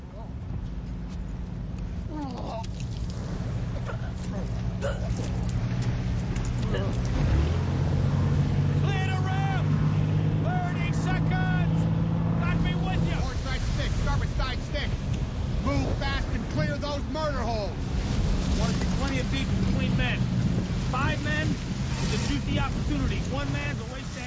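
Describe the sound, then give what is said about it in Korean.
A steady, heavy engine drone of a landing craft churning through choppy water, with wind buffeting and splashing, while muffled men's voices murmur and shout over the rumble throughout. From the opening Normandy landing beach battle in Steven Spielberg's 1998 film Saving Private Ryan; soldiers crouch in the landing craft before the fighting begins. “본격적으로 전투가 시작되기 전에 상륙정에서 몸을 숙이고 있는 병사들이 긴장에 떨면서 신의 가호를 빌고 있습니다.”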